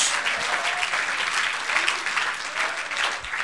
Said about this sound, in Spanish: ¡Ah, gloria a Dios! Démosle un aplauso al Señor. ¡Gloria a Dios!